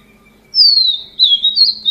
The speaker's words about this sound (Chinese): 比如说这只鸟叫做黄腹琉璃，很很明显知道为什么它叫黄腹琉璃哦，太太容易了。它叫声是这样，有没有感觉它叫声就像音乐？下行的音阶